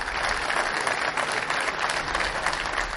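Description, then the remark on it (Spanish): About 90 prisoners at Pollo Real prison in Naples applauding warmly to welcome the Pope, a dense, steady wash of clapping hands that holds at an even loudness for the whole stretch, with no voices standing out. “El Papa almorzó en la prisión de Pollo Real, en Nápoles, junto a unos 90 presos que le dieron la bienvenida con este caluroso aplauso.”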